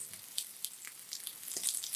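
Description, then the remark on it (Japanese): Steady, soft hiss of rump meat sizzling as it fries at Ogawayama, dotted with sharp little crackles and pops that grow a bit busier toward the end. No one speaks. “で、今日は、その、小川山で今、まだ、うちを、じゅうじゅうじゅうやって、いてるのは、あの、ランプ肉だね。”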